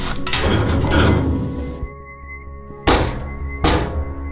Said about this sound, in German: verrammeln wir die Tür mit dem alten Blechschrank hier.